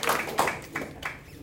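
Scattered audience applause welcoming a presenter on stage to share about a company's product: a few sharp, bright claps spaced out at an uneven pace, moderately loud, with no voices over them.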